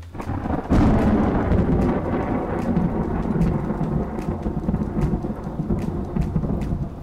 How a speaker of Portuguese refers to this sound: A chuva não iria parar.